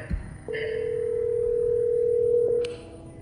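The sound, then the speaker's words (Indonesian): A steady, unbroken telephone dial tone hums clearly for about two seconds as a call is placed to someone in Jakarta, starting after a brief click and ending with another faint click, with no voices present. “coba kita telepon ya”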